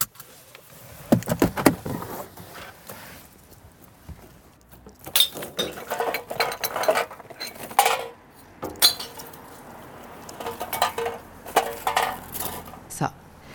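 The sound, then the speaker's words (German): Glass bottles clatter and clink into a recycling bin in several busy bursts, sharp crashes and rattles bunched together with brief pauses between, loud. “die gefühlt anderthalb Tonnen Altglas sind entsorgt.”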